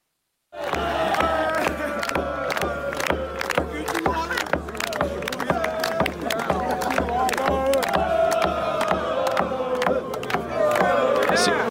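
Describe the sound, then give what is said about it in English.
A crowd chants loudly in unison along to a man's steady, rhythmic drumming, the sharp repeated hits cutting through the sustained mass of voices for the whole stretch. “So you can hear them kind of chanting along to his drumming, and we're supposed to believe that they're mocking him, that they're that they surrounded him and they're just making fun of him.”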